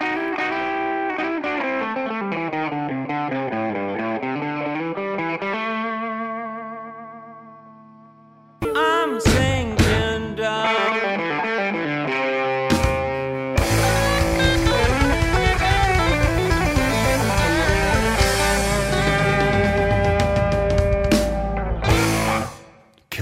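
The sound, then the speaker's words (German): A blues rock song driven by heavily effected, distorted electric guitar: a wavering, chorus-laden guitar line fades out, then loud band riffs with drums kick in and build, with no singing. “haben dort in den 60ern eine wirklich heiße Bluesrock-Nummer daraus gemacht. Und wir hören jetzt eure Version.”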